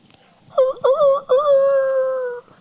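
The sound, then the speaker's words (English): A person's voice imitates a rooster crowing: two quick rising syllables followed by a long, drawn-out final note, loud with no other sounds around it. “When he heard that rooster crow, everything he remembered instantly.”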